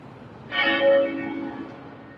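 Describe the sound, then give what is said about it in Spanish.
A single bell of Westminster Abbey, tolled every 99 minutes in memory of Prince Philip, strikes loudly and then rings on with a long, slowly fading hum, heard alone without any voices. “Cada 99 minutos doblan las campanas de la abadía de Westminster en recuerdo del príncipe.”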